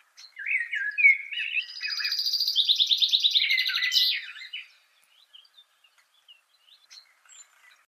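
A thrush sings a clear, varied phrase of fluting and trilled notes for about four seconds, fairly loud, followed by a few faint, scattered chirps in near silence. Thrushes singing in a street at a red sunset after the rain has stopped.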